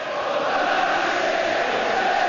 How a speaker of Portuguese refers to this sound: O áudio que você ouve é da torcida do Liverpool em Enfield pedindo justiça às 96 vidas perdidas no desastre.